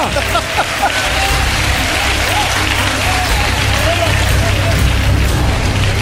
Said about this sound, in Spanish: El público ya aplaude porque ya lo sabe, son todas correctas, claro que sí.